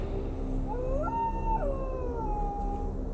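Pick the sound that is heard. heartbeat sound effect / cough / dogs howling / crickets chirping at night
dogs howling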